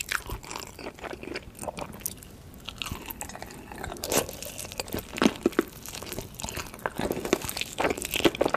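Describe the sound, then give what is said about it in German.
Mukbang eating sounds of someone crunching on dry instant noodles, with irregular sharp crunches and chewing bursts repeating throughout, loud, with no talking. “so 15, 20 Sekunden, ist es fast wie ein mikro muckbang”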